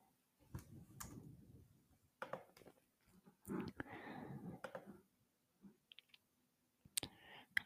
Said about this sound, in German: Warte und nach dem Klick